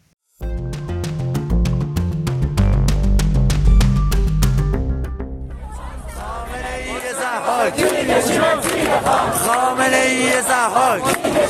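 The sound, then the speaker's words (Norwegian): A short burst of music with steady tones and sharp beats gives way to a loud crowd of a few hundred students in the Iranian city of Shiraz chanting slogans in unison against the country's supreme leader Ali Khamenei, their voices rising and falling in rhythmic waves. “Studenter roper slagord mot landets øverste leder Ali Khamenei.”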